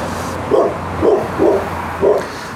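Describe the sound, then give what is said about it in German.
A dog barks four times in a loose, uneven rhythm, each bark short, over a low steady background hum with no voices. “Hunde dürfen auch mit auf die Aufnahme.”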